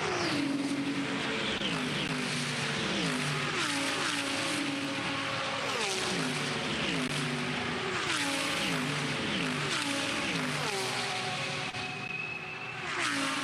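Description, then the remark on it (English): A pack of race cars roars loudly and continuously at the start of the 2024 Repco Bathurst 12 Hour race at Mount Panorama, engines revving up and shifting through gears in overlapping waves as they accelerate together, with no voices. “Here is your alarm call from the Pirelli Speed Camp. Uh, the sights and sounds of the 2024 Repco Bathurst 12 hours getting”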